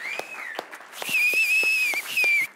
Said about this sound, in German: Alle Männer klatschen für ihre Frauen, genau.